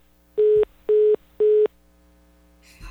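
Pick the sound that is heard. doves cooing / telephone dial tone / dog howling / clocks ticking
telephone dial tone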